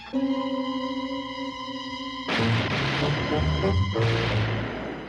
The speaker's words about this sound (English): Gunshots, monsieur. Gunshots, Pop. Gunshots, sir.